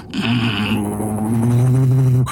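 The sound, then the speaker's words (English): Heavy drills whir to life as they begin another session of drilling into a creature, a loud, low mechanical drone that kicks in abruptly, holds steady for about two seconds, then cuts off sharply. “all of the drills beginning to activate as they begin another session of drilling into this creature.”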